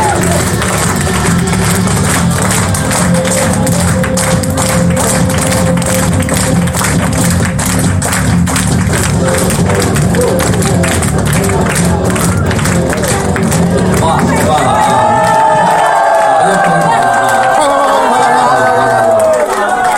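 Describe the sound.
A large audience claps loudly and steadily, with cheers and shouts mixed in, for about fourteen seconds as a teacher is welcomed to share with them, before the applause fades into voices and other sound.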